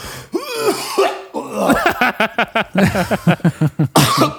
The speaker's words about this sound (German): Aber er hat sich ganz schlimm verschluckt.